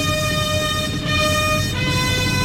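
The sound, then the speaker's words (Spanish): Bugles and kettledrums of the Málaga firefighters sound a bullfight fanfare from the meseta de toriles: loud, sustained brassy notes with two brief breaks between them, over a steady low drum rumble. “Clarines y timbales en la meseta de Toriles de los bomberos de Málaga”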